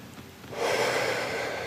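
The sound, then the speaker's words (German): A deep, airy breath, fairly loud, taken on instruction during a guided healing exercise, swells in after a brief quiet moment and holds steady as a long, breathy rush of air. No talking. “Tief atmen.”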